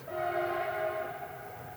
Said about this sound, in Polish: O, pociąg. Tak, tutaj, tutaj są tory.